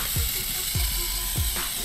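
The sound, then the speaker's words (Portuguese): A spray paint can used for painting graffiti on walls rattles with three evenly spaced clacks, each about half a second apart, over a steady background hiss, fairly clear. “Graffiti, arte urbana, street art, são várias as designações para descrever o ato de pintar na parede com lata de spray.”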